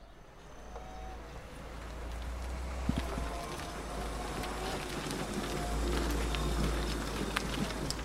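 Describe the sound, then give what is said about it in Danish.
An electric scooter from an e-scooter group in Horsens, Denmark, rolls along at about 10 km per hour with steady wind buffeting the microphone, a continuous low rumble and rushing air that swells slightly toward the end, with no voices. “Hvor hurtigt kører den nu? Den kører cirka 10 km.”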